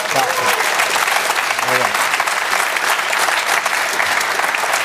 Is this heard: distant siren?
no